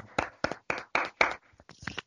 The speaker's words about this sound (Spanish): Un aplauso para ese compadre. también. Un aplauso.